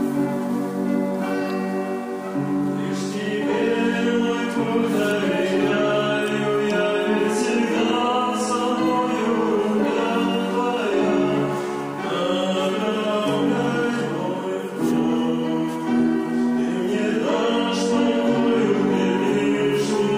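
A closing song plays throughout, a rich, ringing melody with bright bell-like tones, steady and fairly loud for the whole stretch, with no voices heard.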